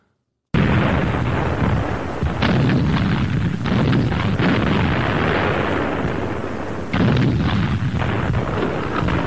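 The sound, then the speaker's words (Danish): Anti-aircraft flak guns fire in heavy, repeated booming bursts over a continuous loud roar, with sharper blasts breaking through at irregular intervals and no talking. “Flak im Einsatz.”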